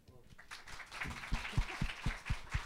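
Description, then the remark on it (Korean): An audience of fans gathered in cold weather applauds in a broad, steady wash of clapping that builds and settles into a rhythmic pulse of heavier claps, moderately loud, with some crowd voices mixed in. “네 역시 지식이 풍부하셔서 이렇게 큰 박수가 나오는군요.”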